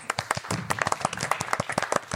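An audience breaks into applause, a dense patter of many hands clapping quickly and irregularly, moderately loud and sustained for a couple of seconds with no one speaking over it.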